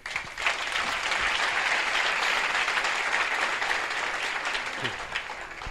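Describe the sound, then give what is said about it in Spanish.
A crowd applauds steadily for several seconds, a dense, even wash of many hands clapping at once with no pauses and no voices standing out. “Un aplauso, por favor.”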